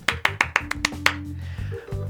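applause

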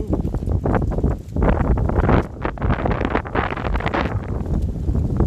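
strong wind blowing

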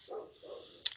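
dogs barking outside

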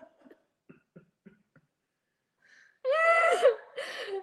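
snoring

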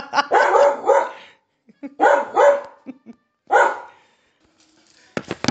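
dog barking

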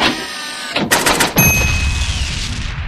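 cash register sound effect

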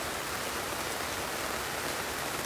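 rain falling outside

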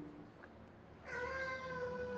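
cat meowing

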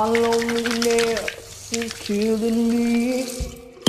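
tap water running

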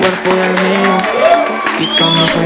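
audience applause and cheering

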